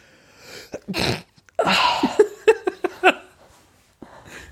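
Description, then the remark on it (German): A loud sneeze with a sharp breathy burst, followed by a few quick pulsing exhalations like stifled laughter, then a faint breath at the end. “also wenn, wenn taube Leute niesen, ist es lautlos weil sie nicht wissen, dass es ein Geräusch macht, quasi, und dass dieses Geräusch, das du beim Niesen machst, eigentlich halt so gelernt ist.”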